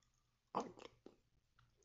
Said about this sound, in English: Look, the crunch. You know what I'm saying? It's the, just the crunch of this bacon.